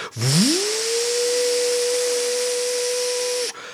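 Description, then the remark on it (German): A voice imitates an old laser printer being switched on: a low tone sweeps quickly upward into a steady, sustained whine with a breathy hiss, held for about three seconds before cutting off abruptly. “Der ist halt so, du machst ihn an, dann macht er ungefähr so ein Geräusch.”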